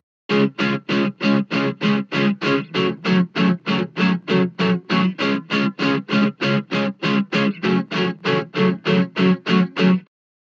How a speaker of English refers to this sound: To further augment or accentuate, reinforce, and embellish this sound, well, that's a mouthful, I added a a crunch guitar. I recorded four takes and panned them left and right.